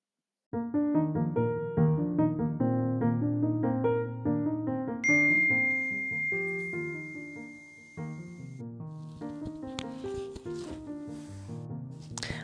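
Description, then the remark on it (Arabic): A bright, chiming phone message notification jingle rings out with a run of bell-like notes, sustained and layered into a short melodic passage that plays clearly for several seconds with no talking. “آه مسج من هنا أكيد بعثت لي الأسئلة”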